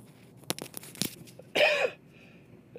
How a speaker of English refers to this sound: oh, thank goodness I'm coughing stuff up. Oh, I feel so much better.